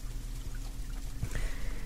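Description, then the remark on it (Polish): Water pours steadily into a cup of tea for a couple of seconds, a continuous trickling splash with a low hum underneath and no talking. “Zdrowotnej wody dodam i napije się przy mikrofonie.”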